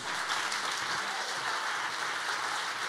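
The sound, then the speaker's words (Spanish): Steady applause from an audience, a dense continuous patter of many hands clapping at an even level throughout, with no voices standing out. “Si tú le vas a dar un aplauso.”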